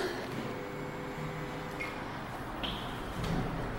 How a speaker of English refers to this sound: Doors are opening.